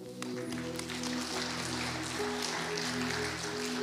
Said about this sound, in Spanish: Muchas gracias. Un aplauso para la hermana.